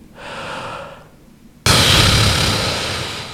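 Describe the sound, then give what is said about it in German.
A voice imitates a mother's heavy mouth breathing in sleep: a raspy, slightly snore-like inhale, then an abrupt, loud, breathy exhale that trails on, with no talking. “Das ist nicht so ein Schnarchen, das ist einfach so ein Einatmen und Ausatmen mit, mit dem Mund.”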